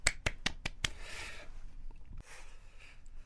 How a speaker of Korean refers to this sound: 아 멋지네요. 네, 박수 한번 치겠습니다.